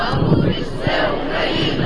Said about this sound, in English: Russian troops entering Slavutych, a small town near Chernobyl in northern Ukraine, were met with a large crowd of protesters this weekend. Social media videos show a crowd of hundreds waving flags and chanting Slavutych is Ukraine